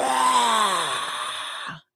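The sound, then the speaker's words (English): A single voice imitates the roar of a hockey crowd heard at the end of an arena tunnel, with a long, sustained breathy "ahh" that starts loud and slowly falls in pitch and volume, lasting close to two seconds before cutting off. “By the time I get to the end of the tunnel, I hear the crowd like this.”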